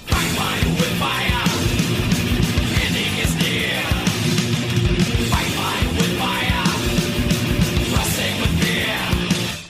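Loud, relentless thrash metal fills the whole stretch: dense distorted guitars and pounding drums with harsh screamed vocals cutting through, driving at a fast, aggressive pace without a break.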